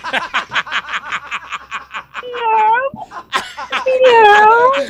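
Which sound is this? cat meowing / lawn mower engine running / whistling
cat meowing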